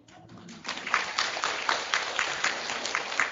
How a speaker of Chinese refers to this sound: 你知道你们在鼓掌，我我被你们的掌声所麻木了。